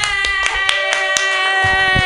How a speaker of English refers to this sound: Clap wildly